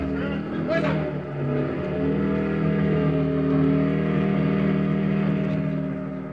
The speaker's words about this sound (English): Then I borrowed a parked motorcycle. Just as the Germans were spilling out the front door, I drove off, headed back to where I'd buried the papers.